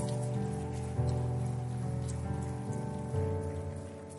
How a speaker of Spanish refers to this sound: Alguien tiene que darle un fuerte aplauso al Señor.